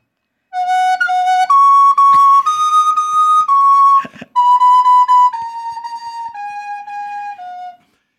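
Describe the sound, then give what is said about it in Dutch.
A recorder plays a slow, halting tune of long held notes, loud, with a breathy squeak and brief break midway, the way children sound when they first begin learning the instrument. No one talks. “En dan zegt iedereen, wat is het ook een rot instrument, die blokfluit.”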